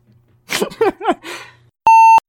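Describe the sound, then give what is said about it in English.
A single loud, steady electronic beep from a cell phone cuts in after a few seconds of wordless voiced vocalizing, lasting about a third of a second. “yeah, I'll call your cell phone. That'll you up.”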